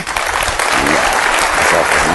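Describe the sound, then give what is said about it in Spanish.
An audience claps steadily for a man who gave the right answer, a dense, loud wash of many hands applauding together without pause for the whole stretch. “Muy bien, un aplauso para él, por favor, ¿sí?”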